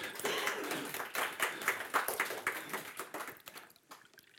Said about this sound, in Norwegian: Dere må gjerne klappe.